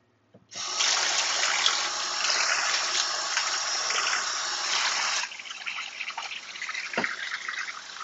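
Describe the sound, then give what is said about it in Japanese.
A faucet turns on and water runs steadily into a sink for about five seconds, then drops to a softer, uneven splashing as pots that had been soaking in water are washed, with a brief clink near the end. “その間には、水につけておいた鍋とかをちょっと洗っていきましょうかね。”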